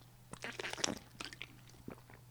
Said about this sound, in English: hang on let me take a sip of water